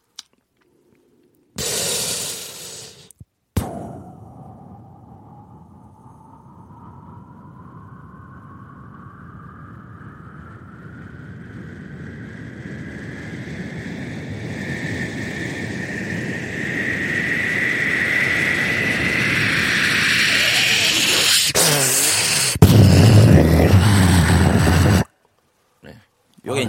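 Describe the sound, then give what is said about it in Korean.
A voice mimics a fairly small airplane taking off, with a little echo added, on KBS, likened to Gimhae Airport: a long whooshing roar with a rising whine that swells steadily louder over about twenty seconds before cutting off abruptly. “비행기 이륙하는 소리.”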